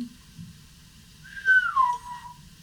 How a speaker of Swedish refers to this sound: Jag vänder och kollar dit den, dit den visslar.